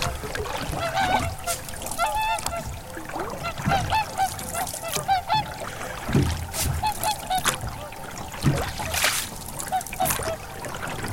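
Many swans call in a busy, overlapping chorus of honking, bugle-like notes, steady across the whole stretch, set against a noisy outdoor background with some wind or water sounds.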